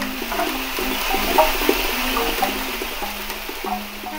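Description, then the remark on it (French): A homemade wooden instrument made from a walnut tree plays low, buzzing tones that step between pitches every second or so, over a steady rushing, airy hiss. No one speaks. “De son côté, son arbre à noix produit ce qui suit.”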